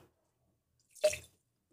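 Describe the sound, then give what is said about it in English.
A single short, wet spit of a swished alcoholic drink from the mouth, with a brief splattering splash into a sink or cup, surrounded by near silence. “So I'm spitting it out.”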